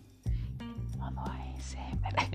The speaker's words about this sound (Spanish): De hecho, si se escuchó por ahí que estaba susurrando, si es que estaba, haciendo mis cuentas en modo susurro.